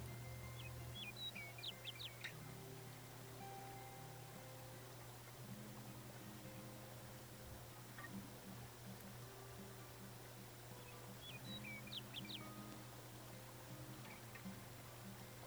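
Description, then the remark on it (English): A songbird on the branch of a tall tree sings two short, bright phrases, one near the start and another about ten seconds later, over a steady low hum of background noise. “Then, on the branch of the highest tree, a songbird sings.”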